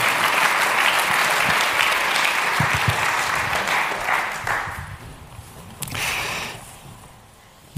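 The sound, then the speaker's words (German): An audience applauds steadily, a dense patter of clapping that holds strong for several seconds, then thins out and fades as individual claps trail off near the end. “Danke vielmals fürs Teilen, auch einen Applaus nochmal, dass du den Mut gehabt hast, auch dir.”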